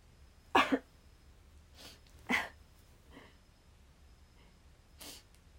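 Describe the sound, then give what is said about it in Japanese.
A handful of short, breathy sniffs from a stuffed-up nose, coming in an uneven sequence with a quick double sniff at the start and quiet pauses between. “鼻が詰まっちゃった”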